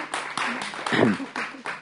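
An audience applauds in a dense, steady wash of clapping, with a brief cheer or shout rising above it partway through.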